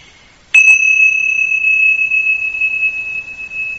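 A single bell is struck once, giving a sharp attack followed by a clear, high ringing tone that sustains loudly and slowly fades over several seconds, with no voices.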